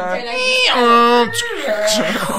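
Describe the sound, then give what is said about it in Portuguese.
A single voice mimics a dial-up modem connecting to the internet, with warbling, sliding tones, squealing pitch sweeps and hissy bursts, loud for a couple of seconds. “realidade é o processo não, de é. descagem é... para você conectar a internet”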